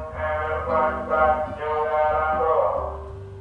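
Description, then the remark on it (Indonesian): A street vendor passing by outside, signalled by a sustained, tonal, melodic call that rises and swells steadily, fairly loud and continuous with no one talking over it. “apa tuh suara apa tuh iya ada yang jualan nah uh, sampai titik yo makin kenceng loh dengerin lo”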